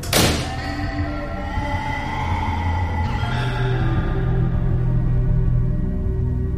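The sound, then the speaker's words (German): A single heavy slam of a house door, shut behind someone who has just run inside, bursts out at the start, then gives way to a steady, droning hum of layered tones that lingers for several seconds. “Ich schlug die Türe hinter mir zu.”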